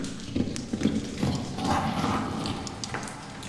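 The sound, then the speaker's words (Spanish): A horse passes quickly outside, its hooves clip-clopping in a steady, uneven rhythm, the hollow knocks slightly muffled over a low background rumble. “No mames, pasó un caballo por afuera.”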